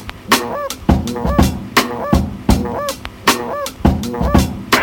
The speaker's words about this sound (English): Just when you thought you heard it all, bird call.